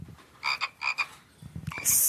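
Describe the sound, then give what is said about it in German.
A programmed synthetic frog croak plays from a programmable box. It repeats in a few short, raspy bursts with a steady rhythm, clear, and ends in a brief bright electronic hiss. No one speaks. “Cool, klingt ja echt wie ein Frosch.”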